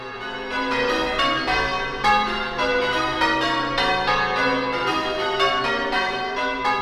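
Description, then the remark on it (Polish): Church bells in the town of Piran on the Adriatic ring continuously with overlapping strikes roughly every second, their rich metallic overtones sustaining and blending into a loud, resonant peal with no voices. “Nigdzie tak pięknie nie słucha się bicia kościelnych dzwonów, jak nad Adriatykiem.”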